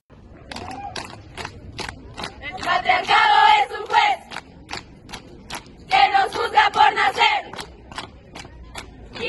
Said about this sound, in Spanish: Vamos a escuchar Un violador en tu camino, canto performance, alumnas del CCH Sur.